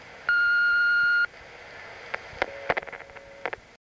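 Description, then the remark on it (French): A steady electronic beep lasting about a second from a home answering machine with a blinking light, followed by a few faint clicks and short tones as playback begins of a message left while the owner was out. “Quand Benjamin rentre chez lui, son regard est attiré par le clignotement lumineux de son répondeur automatique. On lui a apparemment laissé un message en son absence.”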